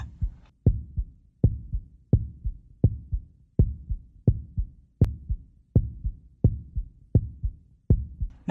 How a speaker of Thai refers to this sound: น้องๆ ลองเอามือแตะหน้าอกด้านซ้ายของเรานะคะ จะพบว่าหัวใจของเราเนี่ยกำลังเต้นตึกตัก หัวใจจะเต้นไปพร้อมๆ กับการสูบฉีดเลือดไปทั่วทุกส่วนของร่างกายค่ะ